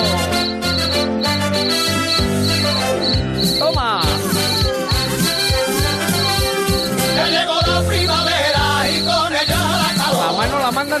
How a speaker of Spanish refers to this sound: nos han mandado una, sugerencia musical maravillosa al hilo de lo de las cigarras que comentamos al principio, que son estas sevillanas, eh, estupendas las sevillanas ….